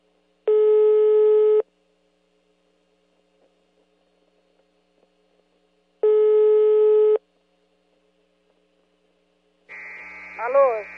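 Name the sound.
telephone ringing tone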